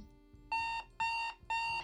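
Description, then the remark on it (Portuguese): An alarm clock beeps three times in a steady rhythm, each bright electronic tone lasting about a third of a second with short gaps between, loud, with no voices. “Acordo antes de ser acordada. Apenas abro os olhos. Desligo o despertador.”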